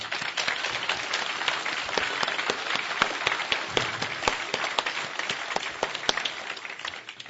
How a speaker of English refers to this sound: we have somebody special that is watching from Zhytomyr, Ukraine, right now, and that's Igor Smolyar. And so we want to say hi to him, so clap and let's give him a good.